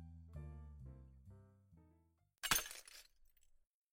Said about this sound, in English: The bottle pieces fell to the floor. Some shards were stuck in the tree.